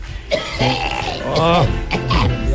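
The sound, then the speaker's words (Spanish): A small, throaty cough caused by smoke from the hills, breaking into a few short voiced bursts with a rough, groaning edge over about two seconds, moderately loud with no clear words. “Y esa tosecita no la no, cerros me tiene jodido.”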